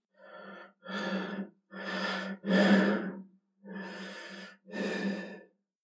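Heavy, labored male breathing on a phone call in which nothing else is heard: six slow, deep breaths separated by short pauses, breathy with a low raspy undertone, as if heard down a phone line.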